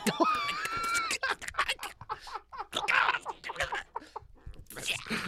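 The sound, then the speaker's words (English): A voice strains out a raspy, choked attempt at a scream, starting with a thin pinched whine and breaking into breathy crackling gasps and strangled bursts, moderately loud. “I do that thing where I try to scream but nothing's coming out.”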